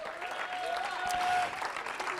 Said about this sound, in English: When I start praying, uh, you know what? We need to clap our hands to the Lord.